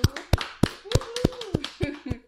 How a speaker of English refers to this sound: And let's clap it up for episode two of season 2